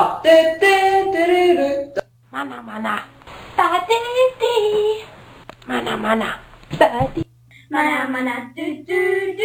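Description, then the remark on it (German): Amateur voices of consumers sing an advertising jingle, fairly loud, in short melodic phrases separated by brief pauses, with a faint steady hum underneath. “hören uns mal an, wie, äh, ja, wie das klingt, wenn Konsumenten singen.”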